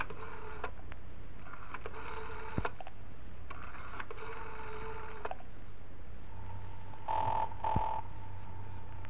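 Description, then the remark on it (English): A telephone rings in three repeated bursts heard over a hissy line, then a steady electronic tone with two short beeps follows. No one speaks. “But it all depends on how good I can sound on the phone.”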